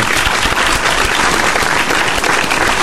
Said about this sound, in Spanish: Yo creo que se merecen un aplauso porque todo el mundo le encantan los feriados, así que vamos a darle un aplauso al que